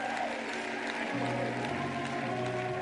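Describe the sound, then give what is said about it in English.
An audience at a worship service claps hands for the Lord in a dense, continuous wash of applause, with sustained musical tones humming underneath throughout. “Get a Lord a hand clap.”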